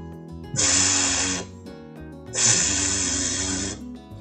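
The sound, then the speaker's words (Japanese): Two sustained buzzing voiced fricatives, each lasting about a second, separated by a short pause: a steady, fairly loud "vvv" sound with a voiced hum and breathy hiss, demonstrating the English V sound, made with the upper teeth lightly on the inside of the lower lip so the lower lip vibrates. “えっ、ー、と、じゃあ V の音をちょっと出してみますね。”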